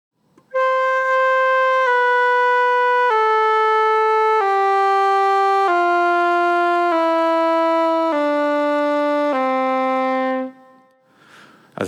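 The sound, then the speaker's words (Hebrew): A flute plays eight sustained notes one after another, each a step lower than the last, as the player closes one more finger hole for each note, lengthening the tube. The notes are steady and fairly loud, with no pauses between them and no voices. “אתחיל מצליל שהוא יחסית גבוה, ואני אלך ואסתום את החורים, כל פעם אוסיף עוד אצבע, ואנחנו נראה שהצליל הולך ונהיה יותר נמוך, כי הצינור הולך ונהיה יותר ארוך.”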